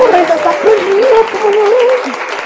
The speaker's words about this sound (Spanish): Que es un aplauso, porque sabe de lo que habla.